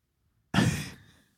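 A single heavy exhale, like a loud sigh, blown right up against the microphone, breathy and full, fading out over about a second. No one speaks.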